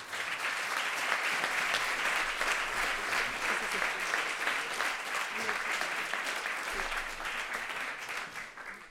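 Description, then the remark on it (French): An audience applauds loudly to welcome two speakers at an event, a dense, steady wash of clapping that holds for about nine seconds before easing slightly at the end. “Que vous pouvez applaudir très très fort, plaît.”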